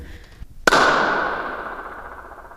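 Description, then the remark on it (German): A single sharp hand clap rings out in a marble hall whose open ceiling shows five wild birds, leaving a long, shimmering echo that slowly fades over about two seconds. A soft thump comes just before it, and no one speaks. “Wenn man in die Hände klatscht, so klingt es, als ob sie fliegen würden.”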